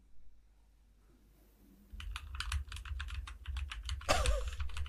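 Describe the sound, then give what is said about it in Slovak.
Brisk typing on a mechanical computer keyboard starts after a brief quiet pause, with rapid, crisp keystroke clicks running steadily to the end and no voices. “Zaťukaj, zaťukaj na ňu.”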